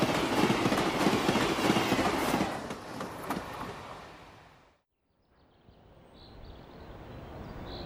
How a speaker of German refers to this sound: Kurz vor Kitzé passiert der Zug die Grenze zwischen Ost und West.